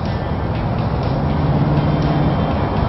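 A large-displacement pickup truck's exhaust roars in a deafening, steady, deep rumble that holds constant for the whole stretch, with a faint low drone running through it and no voices.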